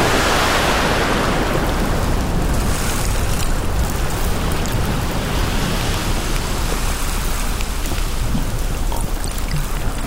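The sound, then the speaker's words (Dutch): A steady, loud roar of rushing sea water fills the whole stretch, a dense, hissing wash of surf with no pauses and no voices. “Ze kijkt nog één keer achterom en stort zich in de Weidse Zee.”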